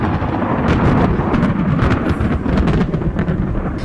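A loud, sustained roll of thunder rumbles deep and heavy throughout, with crackling bursts layered over the low roar and no voices present.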